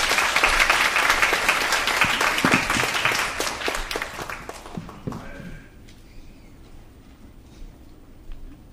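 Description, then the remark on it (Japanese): A crowd breaks into loud, sustained applause to welcome a guest, dense overlapping claps for about five seconds, then tapering off quickly into quiet background noise with a few scattered claps. “えー、えー、今大きな拍手で歓迎したいと思います”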